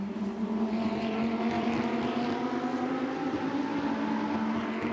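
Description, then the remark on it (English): A loud, continuous roar of race car engines as the cars head up the hill into turn six, a buzzing drone with a strong low pitch that holds nearly steady for the whole stretch, with no voices over it. “In fact, who is that car that's in between Ockey as they head up the hill into turn six and Formal?”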